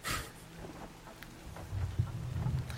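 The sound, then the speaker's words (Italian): Steady rain hisses over a low, rolling rumble of thunder, with a brief bright burst of noise at the start and the rumble swelling toward the end. “mentre sei lì, vedi questo senti in mezzo del casino tra la pioggia e tutto quanto”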